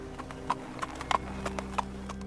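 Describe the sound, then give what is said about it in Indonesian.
Horse hooves clip-clopping at a steady walking pace around 3 a.m., about eight sharp knocks over a couple of seconds, with a low steady hum underneath and no voices. “Setelah cukup lama, aku baru menyadari bahwa itu bukan langkah kaki manusia.”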